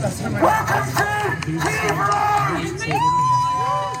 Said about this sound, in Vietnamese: Và một người đàn ông cầm loa đã hô lên xin chào mừng tới đường Kiev, trong khi những người khác vỗ tay tán thưởng.